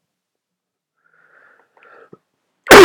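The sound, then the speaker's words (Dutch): A few faint, wheezy breaths, then a sudden loud, harsh cough bursts out at the very end, with no talking. “ik moet er helemaal van hoesten.”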